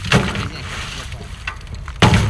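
A plastic mesh bag of oysters, taken from a stack on the boat's platform, is grabbed, turned, pulled down and placed at the platform's edge: a sharp, rattling thump, then scraping and shuffling, and another loud clattering drop at the end, with faint water underneath.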